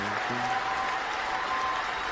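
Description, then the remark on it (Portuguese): Dense, continuous applause from many hands for a successful presentation, a steady hiss-like patter of claps holding at an even, fairly strong level throughout, with a faint low murmur briefly underneath at the start. “Os aplausos vão aumentando.”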